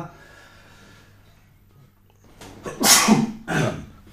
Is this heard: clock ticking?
no